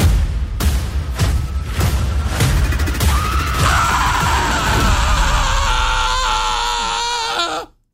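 A loud, drawn-out scream of anguish, like a dramatic death cry in a film, rising out of a series of heavy booming impacts and holding for several seconds before cutting off abruptly.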